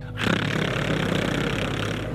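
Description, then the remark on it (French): A voice holds a long rolled R as a tongue warm-up exercise, a steady buzzing trill of the tongue lasting about two seconds, fairly loud and even, with no other talk around it. “Maintenant on va rouler un R.”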